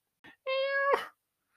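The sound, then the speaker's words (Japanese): A clear meow from Nyankichi, a pet cat who lives with the speaker: a brief soft chirp, then one drawn-out, steady-pitched mew that ends in a breathy rasp, with no talking around it. “あ、にゃん吉っていうのはね、僕のね、イラストとかね、漫画とかのアシスタントをやってくれている、まあ、猫のお友達でしゅね。”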